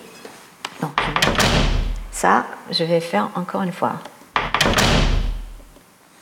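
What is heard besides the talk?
door closing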